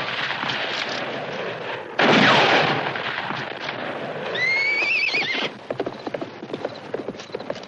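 A horse gallops off at full speed as its rider escapes, hooves pounding in a rapid, fading rhythm amid a loud gunshot fired at the fleeing rider and a shrill whinny, with no voices.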